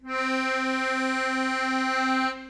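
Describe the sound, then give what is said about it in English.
A single sustained C note on an old Italian diatonic accordion with two rows of buttons, rich and reedy with many bright overtones, holds steady for about two seconds with a gentle regular wobble before cutting off cleanly. Moderately loud, no voices. “So it's got a little bit of that interesting, yeah, wobble to it.”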